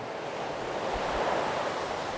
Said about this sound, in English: Father in heaven, thank you for the beauty around me, the reminders of your grace as I hear the waves crash and think of your power and of your faithfulness as you command them and they stop exactly where you have ordained them.